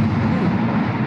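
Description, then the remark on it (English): A deep, sustained rumble of thunder from a thunderstorm rolls on steadily for about a second, loud and continuous, with no one speaking over it. “Sorry, there's a thunderstorm here. I'm sorry if you heard that.”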